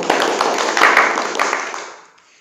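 A small group applauds, dense overlapping claps forming a steady crackle with a few sharper individual hits, holding level before fading out over the last half second.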